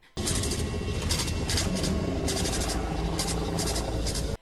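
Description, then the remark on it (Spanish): Loud, continuous mechanical rumble, the smoke monster sound effect, with dense low grinding and repeated bursts of harsh, clicking hiss layered on top. It runs steadily for about four seconds, then cuts off abruptly. “el humo negro contiene todos los sonidos de todos los personajes.”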